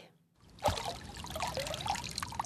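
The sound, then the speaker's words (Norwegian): Water sloshes and trickles with uneven splashes and dribbles as a man in a white coat and white helmet feels along the bottom of a river in central Hiroshima with his hands, searching for remnants of the August 1945 atomic explosion, starting abruptly after a brief silence. “Ute i elva i sentrum av Hiroshima står en mann med hvit frakk og hvit hjelm og føler seg fram med henda langs elvebunnen.”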